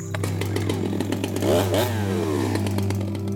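A chainsaw engine drones loudly and continuously as it cuts into a centuries-old faveira tree about 3 metres in diameter and nearly 30 metres tall, its pitch surging and dipping midway as if biting into wood, with a rattling mechanical clatter throughout and no voices.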